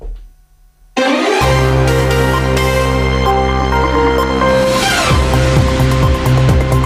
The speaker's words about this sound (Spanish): Llegan las noticias a la sintonía de Onda Cero.